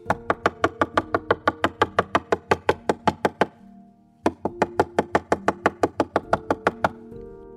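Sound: knocking on a door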